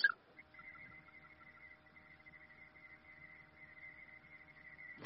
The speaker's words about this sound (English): Turn off the tones.